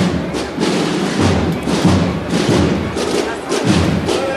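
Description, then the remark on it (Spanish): The Tambores del Carmen procession band of Salteras pounds out a steady, heavy march rhythm on drums, deep thuds recurring about every second beneath a dense wash of snare rattle and crowd noise, loud throughout. “Tambores del Carmen de no, no, Salteras.”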